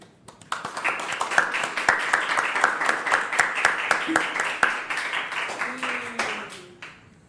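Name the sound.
applause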